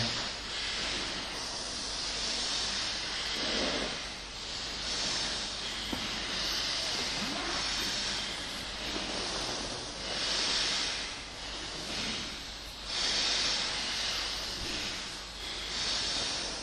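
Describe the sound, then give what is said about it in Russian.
Long, deep hissing breaths drawn through both nostrils, a steady airy rush that swells and fades in slow cycles, continuous with no talking. “And start the long, deep and the hissing breath through both the nostrils.”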